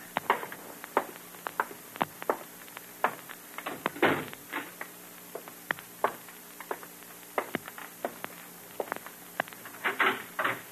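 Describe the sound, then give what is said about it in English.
Doors to a living room are shut with a series of sharp knocks and clicks, then a front door is opened, moderately loud with no talking. “Shut the doors to the living room before you open the front door,”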